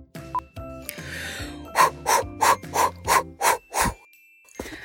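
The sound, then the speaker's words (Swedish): A person imitates loud, exaggerated sniffing, as if smelling a Christmas tree: seven quick, rhythmic sniffs, preceded by some low vocal sounds and a longer noisy inhale. “Granen tänker jag att det är ett större sniffljud än till glöggen, typ det är skogen.”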